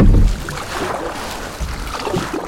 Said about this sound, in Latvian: Nā, ne Facebooka laivā, kā tā necīši populāra, bet gan eistā divvītēgā airu laivā. I mēs laivojam pa pasauli latgalisko upi, kas pēc mana ceļa biedra kaislēga laivotoja dūmam ir Dubna.